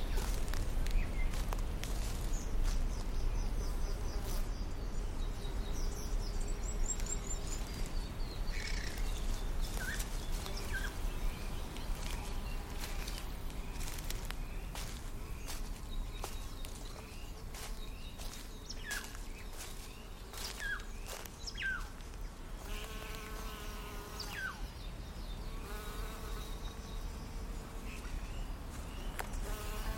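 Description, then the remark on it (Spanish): Insects buzz steadily outdoors among plants and vegetation, with scattered bird chirps and soft rustling footsteps of people walking underneath, a continuous moderate-level ambience with no talking. “Y mientras vamos caminando, nos pues vamos pasando por diferentes plantitas, vegetación, insectitos, pájaros.”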